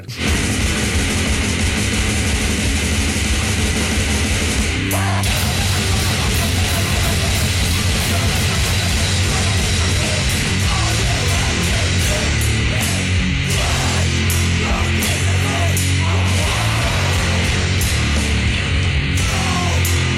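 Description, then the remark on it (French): Loud, dense heavy band music with a muddy, harsh lo-fi mix, distorted guitars and pounding drums blurring into a wall of noise that plays continuously for about twenty seconds, with no talking. “qui est un groupe avec une production musicale assez relative”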